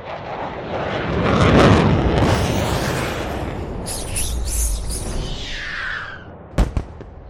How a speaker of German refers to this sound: Die Luft-Luft-Rakete explodierte in einer blau glitzernden Wolke.